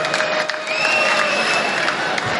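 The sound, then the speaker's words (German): A crowd at an evening fight event with a ring applauds and cheers in a dense, steady wash of clapping mixed with shouts and a few whistle-like tones. It stays loud and even throughout, with no clear speech. “Machst du mal einen kleinen Applaus für alle.”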